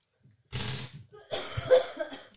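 A person coughs twice in quick succession, a harsh, breathy first cough followed by a longer, rougher one, close to the microphone with no talking.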